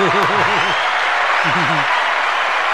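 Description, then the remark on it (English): Steady, dense applause for a 2022 fantasy football league champion fills the whole stretch at an even loudness, with a couple of short bursts of voice rising and falling over the clapping. “By the way, ladies and gentlemen, give a round of applause for our 2022 fantasy football champion.”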